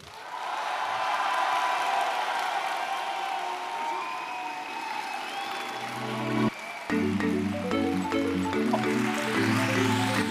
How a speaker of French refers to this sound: Alors... je vous demande de faire un tonnerre d'applaudissements pour Fibre Tigre.